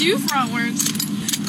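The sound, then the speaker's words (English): Metal-soled shoes click and scrape on gravel-covered pavement at the side of a road in a few uneven strikes as a man dances during a roadside dance lesson, while a person speaks over them. “that's the sound of the metal shoes on, uh, on the gravel covered pavement”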